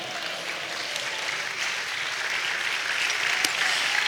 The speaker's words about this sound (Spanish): Dale un aplauso al Señor, amado hermano.